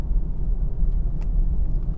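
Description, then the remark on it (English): A car rolls past, its low engine rumble and road noise holding fairly steady throughout, with no voices heard. “So now, okay, oh, another car.”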